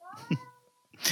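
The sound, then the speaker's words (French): A cat meows, a drawn-out, wavering cry that slides in pitch, followed by a brief louder burst of noise at the end. “c'est mon chat, voilà.”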